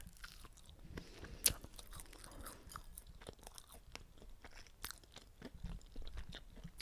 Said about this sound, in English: I think I'm just gonna have to stuff my face a little more and really chew it. And really, mm, really feel it.